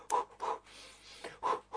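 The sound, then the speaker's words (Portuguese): A voice imitates short, rhythmic panting breaths, four quick huffs with brief pauses between them, like someone out of breath while running. “Você fica correndo com aquela respiração”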